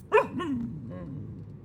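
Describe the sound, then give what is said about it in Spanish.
A dog riding in the back of a car on the road, its head out of the window, gives a couple of short, high-pitched barks, the first sharpest and loudest, followed by a softer yip over a low, steady background rumble. “solo podía mirar por ratos la parte trasera de su auto para ver cómo su perro, feliz, sacaba la cabeza y la lengua por la ventana.”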